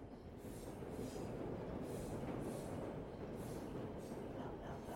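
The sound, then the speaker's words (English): Trains rumble loudly past a ground floor flat at 10 Rillington Place for the whole stretch, a dense, steady roar of wheels and carriages with faint rhythmic clatter and hiss on top, unbroken. “Mary and John Riley had a sleepless first night in their ground floor flat at 10 Rillington Place as the trains thundered by”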